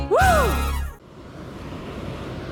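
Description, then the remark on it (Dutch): A brief swooping tonal sound opens, then gives way to a steady, moderate rush of sea waves breaking on a white beach in the Dominican Republic on a sunny 37-degree day, with no talking. “Je hoort de golven al op de achtergrond.”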